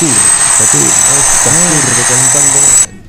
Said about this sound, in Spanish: No pueden estar usando el taladro hasta ahora.